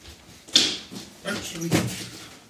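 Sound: door opening or closing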